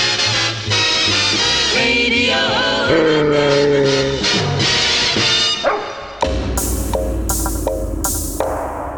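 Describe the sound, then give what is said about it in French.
A dog barks loudly in several sharp bursts near the end, following a stretch of dense, tonal, music-like sound; no one speaks. “on n'attend plus que ce cabot de Pompidou pour commencer”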